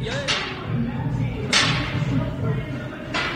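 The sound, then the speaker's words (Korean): Gym ambience with three sharp, loud impacts of weights and equipment spaced about a second apart and a treadmill running, over a steady indoor hum and faint background music. “헬스장에서 소리 보내주셨습니다.”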